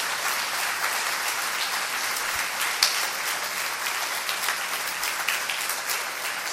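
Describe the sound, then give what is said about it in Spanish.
An audience at a 12 o'clock parish Mass applauds its catechists steadily, a dense, even wash of many hands clapping that holds at a constant level throughout, with no voices standing out above it. “Quiero invitar a nuestras catequistas, si están, le damos un fuerte aplauso, son personas maravillosas que están entre nosotros.”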